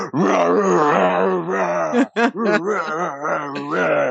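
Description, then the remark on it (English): A voice imitates a screaming growl, growling along to a screaming song in a video game: a sustained, strained, harmonically rich vocal roar lasting about four seconds, loud throughout, with a brief break midway before the growling resumes. “It's more fun to growl at the thing.”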